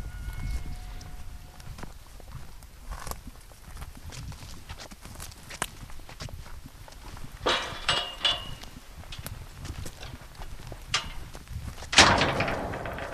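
Metal gates of a two-hectare fenced lynx enclosure creak and clank as they swing open and shut, with a few sharp knocks and rattles, the loudest near the end, over a low outdoor rumble.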